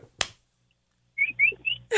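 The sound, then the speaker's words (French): A person imitates a marmot's alarm call, the cry a marmot gives to warn other marmots of danger: three short, sharp whistles in quick succession, fairly loud, preceded by a brief click and then a stretch of near silence. “quand il y a un danger, elle émet un cri pour alerter les autres marmottes”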